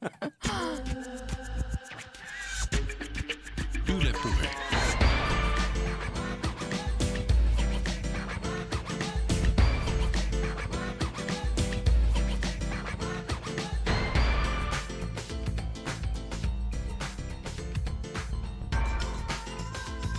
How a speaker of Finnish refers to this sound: niin kuunnelkaa te tätä ammattilaisten tekemää tunnaria.